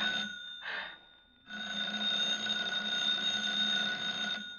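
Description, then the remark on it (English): A telephone rings at 11:30 in an apartment with a bright, sustained electronic bell tone, a short burst followed by a pause and then a longer continuous ring, fairly loud, with no talking. “I was standing next to her at 11:30 when the phone rang.”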